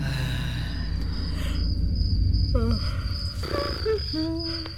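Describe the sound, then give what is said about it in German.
Crickets chirp steadily in a continuous high-pitched drone from a sound device that can be switched off with a button, with some brief warbling tones and low rumbling background noise throughout. “Sag mal, kannst du das Zirpe nicht abstellen?”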